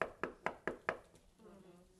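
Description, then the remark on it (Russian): Five quick, evenly spaced, loud knocks on a door, rapping in a steady rhythm before giving way to a faint, low murmur. “«Се стою у двери и стучу».”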